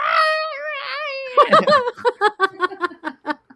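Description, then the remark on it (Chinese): A person imitates the baby of a work-from-home Agoda or Booking customer service agent crying while being put to sleep during a call: a drawn-out, wavering high wail, then a quick run of about ten rhythmic, choppy sobbing bursts that fade toward the end. “所以我有一次 嗯 打去 Agoda 还是客还是 Booking 忘记了，他 嗯 在哄他小孩睡觉，他小孩在哭”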